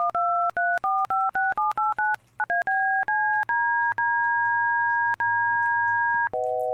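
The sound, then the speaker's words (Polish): A loud run of DTMF telephone keypad tones generated from a software preset, quick two-pitch beeps in rapid succession, then several longer held tones, with sharp clicks between them and no voices. “Y, ma kilka presetów od do tonów DTMF.”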